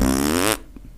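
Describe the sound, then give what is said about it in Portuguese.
A voice imitates a ripping fart: one loud, buzzy, sputtering blast of about half a second that cuts off abruptly, leaving quiet afterward. “é no trem que você conhece os tipos de pum que existe. Por exemplo, tem um rasgatira que faz.”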